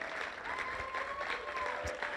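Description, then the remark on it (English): An audience applauds four people called to come out and sit on the front row, a dense wash of clapping at an even, moderate loudness throughout, with a faint sustained tone running underneath. “Let's applaud them, and they're going to come and sit on the front row.”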